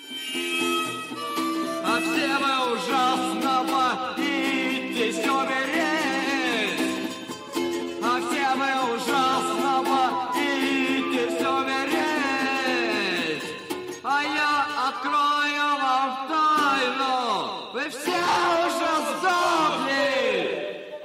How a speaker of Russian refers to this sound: Этот концерт, который … назвал …, был записан и недавно официально издан.